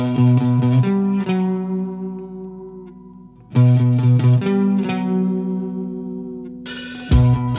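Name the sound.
rock song played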